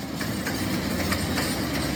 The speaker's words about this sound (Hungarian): három, illetve négy sínpáron fognak dübörögni a vonatok, esetleg párhuzamosan több is egyszerre az ember konyhájában.